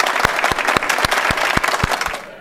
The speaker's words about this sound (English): I'm going to give her clapping sounds.